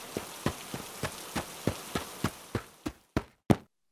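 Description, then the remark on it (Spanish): Heavy rain hisses steadily while sharp, evenly spaced taps land about three times a second, growing slightly louder before everything cuts off abruptly. No voices are heard. “Tu esposa Huitaca ha regresado y desde entonces no ha parado de llover.”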